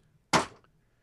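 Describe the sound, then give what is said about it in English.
A stack of three thick 1983 issues of Compute magazine drops onto a table with one loud slap-thud that fades quickly, the only sound against an otherwise quiet background. “that is the sound of three 1983 issues of Compute.”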